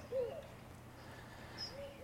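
A Eurasian collared dove gives a short, soft, low cooing note, followed by a fainter coo and a brief high chirp against a quiet, steady background hiss.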